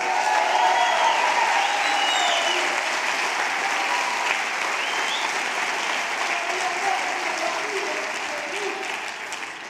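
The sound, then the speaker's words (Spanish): A crowd claps loudly and steadily in applause for Jesus, a dense wash of applause that holds strong throughout and tapers slightly toward the end, with faint voices mixed in beneath. “Alguien dé un aplauso fuerte a Jesús.”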